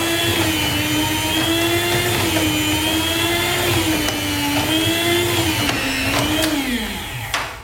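An electric meat slicer whirs steadily, its motor whine wavering slightly in pitch as it cuts sausage into thin slices onto a plate, then spinning down at the end.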